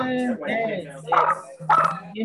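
animal, dogs barking

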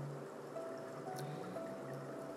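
nature, falling water

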